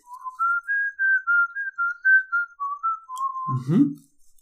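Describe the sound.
Someone whistles a slow, mournful melody, a steady string of clear sustained notes rising and falling, ending with a brief low rumble of breath or voice.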